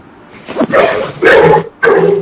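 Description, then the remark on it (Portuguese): A dog belonging to a participant on an online call barks loudly, three sharp, drawn-out barks in quick succession with brief pauses between them, and no one speaks. “É alguém com cachorro?”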